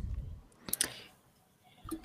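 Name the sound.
camera shutter clicking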